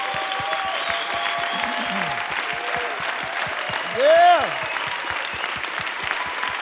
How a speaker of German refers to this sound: Und lasst doch diesen Frauen und Mann im Hintergrund mal einen großen Applaus geben. Unsere Heroes der Church sind unsere Volunteers.